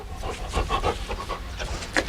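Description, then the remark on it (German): A dog pants rapidly, a steady run of quick, breathy huffs repeating about every quarter second, with no voices over it. “Ähm, entschuldigen Sie, Sir, aber könnten Sie vielleicht zuerst den äh, Hund da...”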